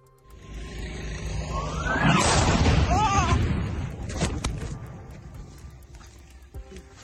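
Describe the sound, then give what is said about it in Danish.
A heavy rumbling blast swells and rolls for a couple of seconds, followed by several sharper explosions cracking out: a city under constant shelling by Grad rockets and mortars during the fighting at Bakhmut in eastern Ukraine, recorded on a soldier's mobile phone, with faint voices in the background. “Город просто постоянно обстреливают. со всего причем, начиная от градов, заканчивая минометами и всем остальным.”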